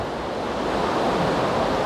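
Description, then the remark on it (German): Ocean waves rush steadily onto the shore in a continuous, unending, dense roar of surf, fairly loud, with no voices present. “An solchen Orten wie diesem hier, wo das Rauschen ja gar nicht aufhören mag.”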